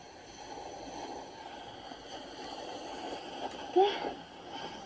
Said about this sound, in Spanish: en un entorno sonoro dominado por el ruido de las olas, en el cual se cuela el relincho de un caballo.